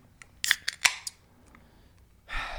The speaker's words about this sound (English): Uh, I'm cracking a beer open today